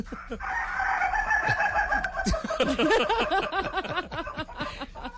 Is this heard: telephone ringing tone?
no